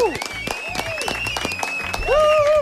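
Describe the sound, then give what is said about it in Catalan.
An audience bursts into applause for the absent guest Martí Fons, a dense run of sharp claps that swells louder toward the end, with whoops and cheering voices riding over the clapping. “I senyores i senyors, ara sí, ara sí, no mos estendrem molt més, donam una fort, un fort aplaudiment, primer de tot, en el nostre convidat d'avui, que no hi és present, però sé que mos estarà escoltant, en Martí Fons, un bon i gran aplaudiment.”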